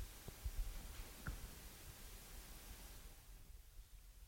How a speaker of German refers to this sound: Warum rauscht das hier eigentlich so gewaltig? Das Gefühl, als wenn das Rauschen immer schlimmer wird.